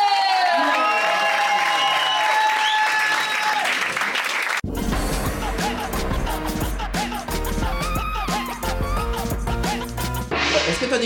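A show audience bursts into loud, sustained applause with cheering and whoops for comedians Charles Deschamps, Charles Nouveau and Tania Dutel, a dense wash of clapping that carries on steadily to the end, preceded by a few seconds of bright music.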